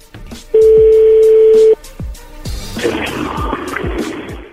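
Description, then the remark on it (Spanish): A telephone line tone as a number is redialed: one steady, loud mid-pitched beep lasting about a second, followed by a rough, rumbling noisy stretch. “A ver, se está marcando de nuevo, no hagan ruido, por favor.”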